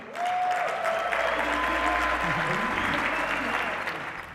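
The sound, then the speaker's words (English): Sustained, loud applause from a large audience welcoming the champ Mikey Garcia, dense clapping with a few faint voices and cheers mixed in, steady throughout and easing slightly at the end. “Please get on your feet and help me welcome the champ, Mikey Garcia.”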